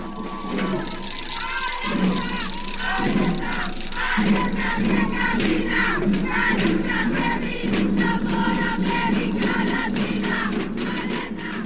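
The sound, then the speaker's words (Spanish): A large crowd of more than 2,500 people, mainly women, at a protest march chants and shouts together, many voices merging into a loud, continuous roar with rhythmic swells that rise and fall throughout. “Más de 2.500 personas, principalmente mujeres, participaron en la marcha.”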